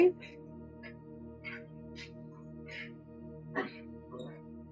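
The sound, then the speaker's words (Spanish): Dogs whine in short, high-pitched bursts that repeat every half second or so over a steady low hum, moderately loud, with one louder yelp-like cry near the end. “permíteme, porque tengo que parar lo de los perros, ¿ok?”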